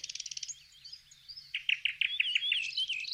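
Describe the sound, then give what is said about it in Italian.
Birds chirp and sing in a lively, overlapping chorus: a quick run of rapid chirps opens, then warbling phrases and a string of bright, rhythmic notes, clear, with no voices. “Mi basta sentire queste creature per essere di buon umore.”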